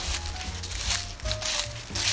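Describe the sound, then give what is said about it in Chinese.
Footsteps crunching through fallen leaves, a few steady crackly steps over roughly two seconds, with a low rumble underneath and no voices. “踩着落叶的声音，”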